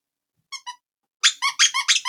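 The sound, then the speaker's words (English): A squeaky beaver toy, Rick the Business Beaver, on the set of Small Business Mornings squeaks twice briefly, then after a pause lets out a rapid burst of five or six loud, high-pitched squeaks, clear with no talking. “Yes, we're not going like we're not totally losing it, but yes, we have Rick the Business Beaver now on set.”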